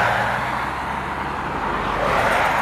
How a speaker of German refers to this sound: Ganz schön viel Verkehr. Ja, ganz schön viel. Auto 2 und 3.